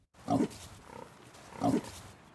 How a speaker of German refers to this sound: Im Nationalpark des Nebrodi-Gebirgszugs leben nicht nur viele Ziegen zwischen den Ginsterbüschen, sondern auch die halbwilden schwarzen Nebrodi-Schweine.